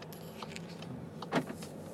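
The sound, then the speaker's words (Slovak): Quiet ambience inside a new Golf car with people sitting in it, a low steady hum, small clicks and rustles, and one brief louder knock about two-thirds of the way through. No one speaks. “sedíme v eh, Golfe novom,”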